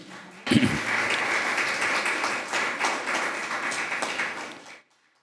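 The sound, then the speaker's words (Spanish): An audience at a sermon bursts into sustained applause for Jesus, a dense wash of many hands clapping that holds steady for several seconds before stopping abruptly. “Pueden aplaudirlo a él.”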